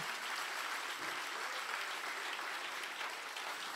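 Sustained applause for the Lord from a crowd, a dense, steady clatter of many hands clapping at once for the whole stretch, loud and even with no pauses or voices standing out.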